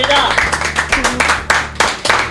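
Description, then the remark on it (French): Loud, steady applause from a crowd for the guest Marine on Buzz Radio, dense clapping that fills the whole moment with a low hum beneath it. “On est toujours là avec Marine, qu'on peut applaudir, notre invitée, bien ah, sûr.”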